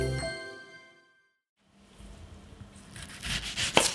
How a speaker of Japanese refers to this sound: 今朝はキーマカレーの美味しい音色それではお聴きください